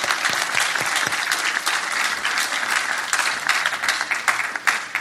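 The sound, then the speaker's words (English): A crowd at a panel applauds Jared Petty steadily for about five seconds, a dense, loud wash of many hands clapping with sharp individual claps popping out, no voices standing out. “Everybody give him a round of thank applause.”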